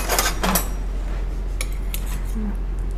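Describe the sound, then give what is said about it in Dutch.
Metal cutlery clinks and rattles, a quick cluster of bright jangles at the start followed by a few sparser, lighter taps, with no one speaking. “Bestek.”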